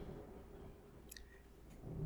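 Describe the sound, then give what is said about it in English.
A low rumble of thunder outside the window rolls on steadily through the short stretch, muffled, with a couple of faint light clicks near the middle. “Sorry, I'm like looking at my window telling the thunder gods to chill the fuck out.”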